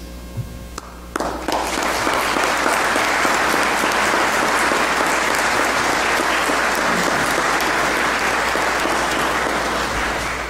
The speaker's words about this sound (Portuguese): O anúncio, como pudemos escutar, foi saudado com uma salva de palmas pelos presentes.